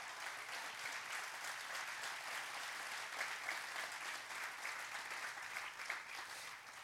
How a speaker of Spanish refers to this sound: Vamos, alguien tiene que aplaudir mejor.